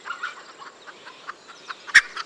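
A red junglefowl (Bankiva chicken) clucks in a quick, uneven series of short calls, with one sharper, louder note near the end; no voices, just the bird.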